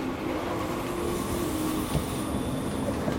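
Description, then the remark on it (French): A train bound for Saint-Étienne rolls steadily along the rails, a continuous low rumble with a faint metallic whine and occasional soft knocks, heard from inside the carriage with no voices. “alors je l'ai contacté et me voilà dans un train pour Saint-Étienne.”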